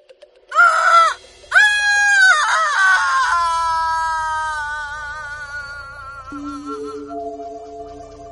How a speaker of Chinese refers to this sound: 那凄厉的哭声，空荡荡的回音，仿佛不属于这个世界。